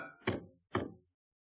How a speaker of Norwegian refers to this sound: Folk i kantina sitter og banker i bordet.